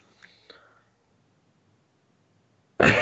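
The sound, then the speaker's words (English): Soft breathy sounds give way to near silence, then a sudden loud cough bursts in at the very end and is cut off. “I just started coughing right before the podcast started.”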